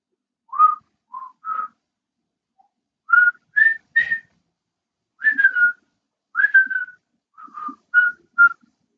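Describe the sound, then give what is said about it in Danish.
Someone whistles a short melody alone, in clear separate phrases of a few notes each, with brief pauses between them, moderately loud. “afslører Ulf Pilgaard sig som morderen ved at synge, eller ved at fløjte”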